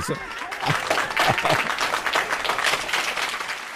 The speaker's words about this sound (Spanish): Excelente, me gustó los aplausos.